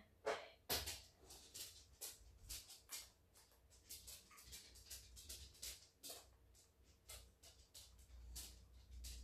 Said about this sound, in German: Ne, und mein Hund rastet hier gefühlt komplett aus.